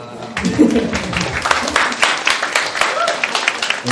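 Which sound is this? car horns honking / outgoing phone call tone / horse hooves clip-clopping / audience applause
audience applause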